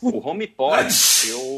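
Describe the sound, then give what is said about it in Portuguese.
A short, breathy sneeze bursts out in the middle of casual talk, a sharp hissing rush of air blended with a voiced cry, followed by a bit of laughter and more speech. “Saúde”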